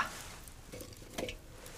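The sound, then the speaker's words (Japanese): A campfire that had burned low crackles softly after fresh firewood is added, with a steady hiss broken by irregular small snaps and a couple of slightly sharper pops. No one speaks. “焚き火が薪が足りないですねちょっとこれ足しときましょうか”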